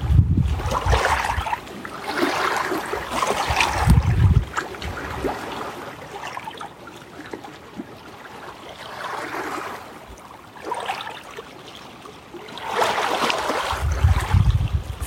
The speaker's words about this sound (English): Feeling the warm breeze. Feeling how the waves bask our souls.